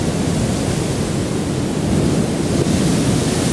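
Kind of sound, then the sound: nature, ocean waves washing ashore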